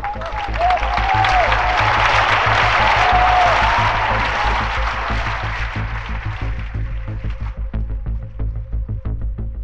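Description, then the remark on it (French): A stadium crowd of 12,000 people applauds Chris Evert and her young Czechoslovak opponent after Evert wins their tennis match 2-6, 6-2, 6-1, in a dense, sustained wash of clapping that swells early, then gradually thins out toward the end, with a low steady hum underneath. “12 000 personnes ont alors applaudi dans un même élan la princesse et sa demoiselle d'honneur.”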